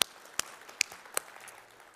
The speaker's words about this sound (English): So let's give them a hand and we'll tell them y'all clap for them when we see them.